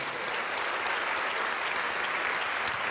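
An audience applauds to God steadily, a dense wash of many hands clapping at a constant loud level with no pauses, and no one speaking over it.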